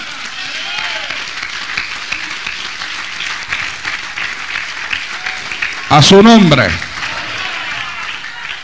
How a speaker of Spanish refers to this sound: Denle un aplauso al cielo.